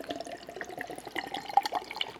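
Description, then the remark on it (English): A sour ale brewed with pineapple pours into a glass in a steady, gurgling splash that lasts about two seconds, filling only half the glass, with small bright plinks near the end and no voices. “You don't get a full glass. Almost spilled everything.”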